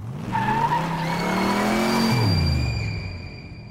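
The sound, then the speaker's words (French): A car swerves toward the sidewalk with tires screeching loudly, a sustained squeal over a revving engine that shifts pitch and then fades out, with no one speaking. “Quand la conductrice les aperçoit, elle n'hésite pas une seule seconde et braque le volant vers le trottoir.”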